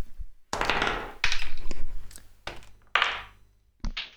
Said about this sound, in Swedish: Um, ni får kasta initiativ, det vill säga 20 sidor tärningar.